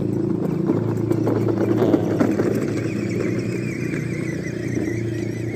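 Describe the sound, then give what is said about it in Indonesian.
A small electric motor whines steadily, a continuous buzzing hum with a faint squeal, from children playing with electric toy ride-on cars in a park. “ya kalau misalkan lu denger mesin suara mesin tadi itu adalah mesin anak-anak sedang main mobil-mobilan yang uh, lu tahu mobil elektrik gitu kan yang buat anak-anak nah gitu jadi gue harus ada di taman jadi banyak aktivitas orang di sini”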